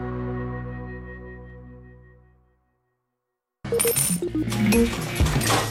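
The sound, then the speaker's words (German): A ringing metallic tone slowly fades away, then after a short silence a handful of coins clatters and jingles loudly onto a hard surface, with no voices. “einen alten Fränkler oder sonst noch alte Münzen daheim? Vielleicht sogar aus Silber.”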